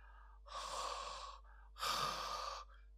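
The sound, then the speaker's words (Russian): Two long, heavy breaths from a voice imitating deep breathing in a slow rhythm with a short pause between them, fairly loud and with no talking. “ежик с медвежонком легли голова к голове и стали дышать.”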